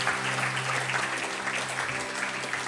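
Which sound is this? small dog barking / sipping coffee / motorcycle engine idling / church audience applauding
church audience applauding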